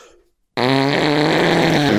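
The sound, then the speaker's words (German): After a brief moment of quiet, a loud, buzzy, sustained fart noise blown with the lips lasts about a second and a half, with no talking. “Wenn jemand da ist, ich find's auch schlimm, wenn jemand in der Kabine ist und furzt.”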